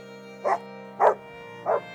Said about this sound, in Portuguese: A casa estava vazia, a não ser por Cinnamon, a cachorrinha de Suzy, que chorava e latia assustada.